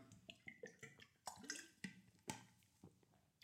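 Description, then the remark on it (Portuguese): Quiet sipping of water: a few wet slurps and soft swallowing clicks in an uneven rhythm, with no one talking. “Só dá um gol de água, desculpem.”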